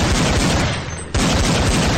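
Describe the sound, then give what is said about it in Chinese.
Dense, continuous gunfire from pursuers: a rapid volley of overlapping shots with heavy low thumps, briefly thinning out midway before resuming at full loudness. No voices. “枪声更近了，子弹不断从他俩的身旁和头顶掠过，发出嘶嘶的尖笑。”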